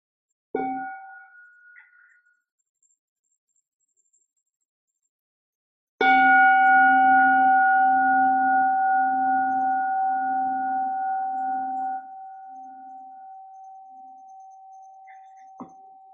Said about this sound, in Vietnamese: xin cô thỉnh một tiếng chuông cho mọi người buông thư